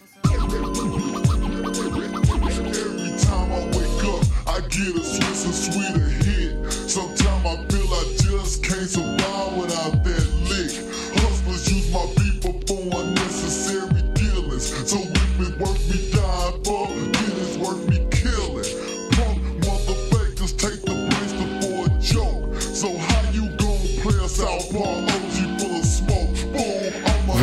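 Slowed-down, chopped and screwed hip-hop plays steadily for the whole stretch, with deep booming bass, dragging beats and a murky, thick sound at constant loudness, with no talking over it.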